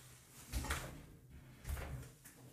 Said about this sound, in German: So, ich musste mal gerade die Tür zumachen.